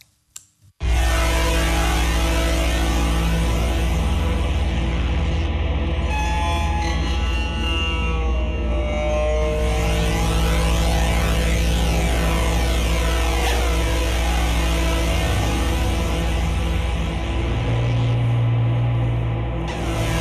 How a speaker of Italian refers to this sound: il nuovo disco eh, di questa musicista si intitola … e noi lo ascoltiamo qui a Battiti con una traccia